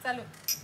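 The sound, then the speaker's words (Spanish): A single bright clink of cups tapping together in a toast, short, following a brief murmur of voices. “brindar gracias”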